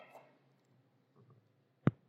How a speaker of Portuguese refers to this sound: Oh, até caiu a caneta da mão.